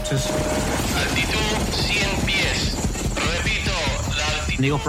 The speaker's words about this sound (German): Die Einheit bestand aus Spezialkräften für Dschungeleinsätze. Sie flogen in Black Hawk Hubschraubern.